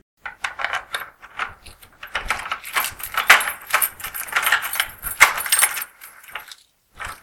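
A key rattles and scrapes in a door lock as the door is unlocked, with bursts of metallic jingling and clicking over several seconds and a final short click. No voices.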